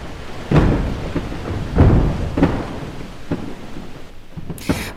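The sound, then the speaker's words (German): Antarctic ice shelf breaking apart: a series of loud, irregular cracks and deep rumbling booms, rather like fireworks or thunder, over a constant low roar. “vielleicht an ein Feuerwerk erinnert, ist tatsächlich Schelfeis, das in der Antarktis zusammenbricht.”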